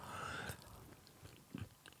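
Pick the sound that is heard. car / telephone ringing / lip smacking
lip smacking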